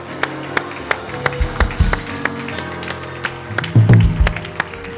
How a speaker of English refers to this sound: Come on, give him a hand clap and a shout. Hallelujah.